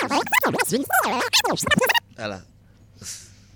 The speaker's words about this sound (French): Comme les amis de Raiden, ils font pull-up selecta. Et je le fais.